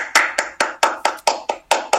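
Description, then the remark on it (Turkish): A single person claps hands in a quick, steady rhythm, about nine sharp claps, imitating a basketball team's applause during a timeout. No one speaks. “Tüm takım alkış yapıyor böyle.”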